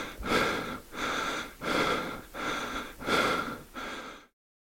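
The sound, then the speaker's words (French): Heavy, ragged breathing from an exhausted runner lying on the ground after sprinting 200 metres and touching a yellow barrier. Six deep gasping breaths come in a steady rhythm, loud, each inhale and exhale rasping, with no speech around it. “C'est le silence chez les spectateurs. On entend seulement le souffle de guerre.”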